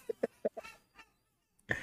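Crows and seagulls squabble on an adjacent roof: a quick run of short, harsh caws and squawks, a brief pause, then one louder screech at the end, with no one talking.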